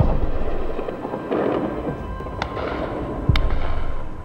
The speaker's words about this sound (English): The sirens went off at 20 to 3, and even before that, the big machine guns on the tops of buildings round here were firing tracer into the sky.